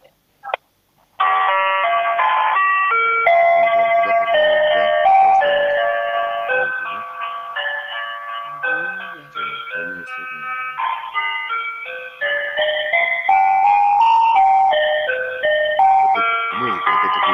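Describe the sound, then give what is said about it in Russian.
A slow, tinkling electronic telephone hold melody plays steadily while a caller waits to be connected, its thin chime-like tones stepping through a simple tune, with no voices over it. “театр, где пляшут куклы какие-то странные, да? Такое впечатление какое-то, медленно так.”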